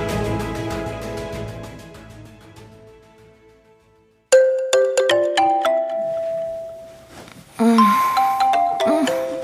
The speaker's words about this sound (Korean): 감독은 휴대폰 알람 소리에 눈을 떴다.